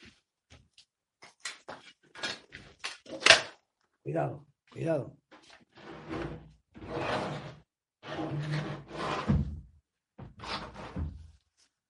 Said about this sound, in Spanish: Vamos a hacer una cosa. Vamos a cerrar la ventana y la puerta.